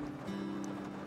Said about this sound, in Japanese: 今日はすんごい雨で ちょっとこのもしかしたらね後ろに雨音が入っているかもしれません、えー、お聞き苦しかったら、あのー、申し訳ありません